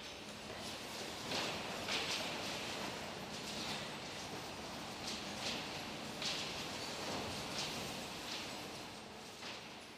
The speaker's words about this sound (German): Ich sehe zum Beispiel ganz schön viel Papier, viele Saft- und Milchtüten und vor allem ganz schön viel Glas. Das kann man sogar hören.